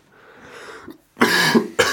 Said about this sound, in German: Jedes Mal, wenn ich huste, ein Eierlikör für euch.